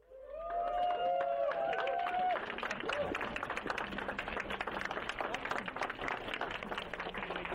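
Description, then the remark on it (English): Sustained audience applause at a live program, a dense crackle of many hands clapping at a steady loudness, with voices cheering and whooping over the first couple of seconds before it settles into clapping alone. “It's not that I'm starved for applause but I'd like to ask you all to clap some more, but here's how I'd like you to do it.”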